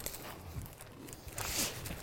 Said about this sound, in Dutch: Ehm, oké, nou dan lopen we nu even wat, door naar... Ja, we stampen eigenlijk door naar de zeereep top.